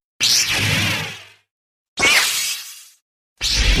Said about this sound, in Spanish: eran dos motores viejos, así sucios, medio defectuosos y entonces a eso le agregó la interferencia que causaba en estos motores el acercar un micrófono sin protección electromagnética. Y así pues tenemos el sonido de los sables de luz.